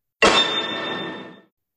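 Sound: glasses clinking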